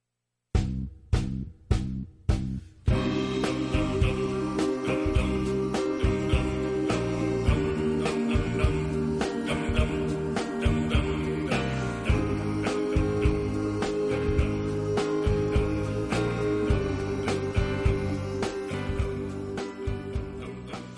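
Four sharp percussive hits open into a full, steady pop arrangement, with an elderly pensioners' choir singing in close harmony over a driving beat, loud and continuous throughout; a track from the soundtrack of the film Song for Marion (송포유).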